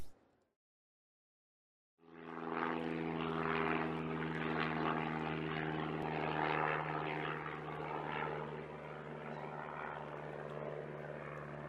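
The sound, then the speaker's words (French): After a moment of silence, the engine of Amelia's propeller monoplane, named the Firmament, bursts in with a loud, steady droning roar and a buzzing tonal hum that holds at full power throughout as it takes off from Harbour Grace airport, Newfoundland, on 20 May 1927, with no voices. “Les cieux sont chargés de mystères alors qu'Amelia s'apprête à s'envoler à bord de son monoplan, baptisé le firmament pour un vol qui va marquer l'histoire.”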